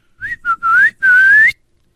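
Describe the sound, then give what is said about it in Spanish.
A loud, shrill human whistle meant to startle someone, given as two short chirps then two longer blasts, the final one sustained and rising in pitch before cutting off into silence. “Está su mamá distraída y usted le tienen que chiflar recio así. Para que la asuste.”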